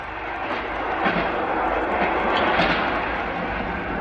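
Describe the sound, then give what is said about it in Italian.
A train to Bologna, Italy, rolls steadily along the tracks with a loud, continuous rumble and hiss, broken by occasional rhythmic clacks of the wheels over rail joints. No voices. “Qualsiasi cosa faccia, il 2 agosto prendo il treno e torno a Bologna.”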